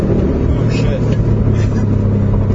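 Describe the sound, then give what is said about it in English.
A car engine roars loudly and steadily along with heavy road noise as the car drives at about 100 miles an hour, the fastest it has ever gone. Muffled voices may be present underneath. “Yeah, so uh, that's officially the fastest this car has ever gone.”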